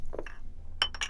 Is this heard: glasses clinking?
yes